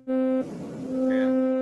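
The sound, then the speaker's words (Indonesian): A steady electronic tone from a basic synthesizer oscillator, a buzzy, harmonic-rich drone, briefly broken by a noisy smear before the pitched tone resumes and holds loud to the end. “Oh, ya sebenarnya bunyinya gini doang osilator.”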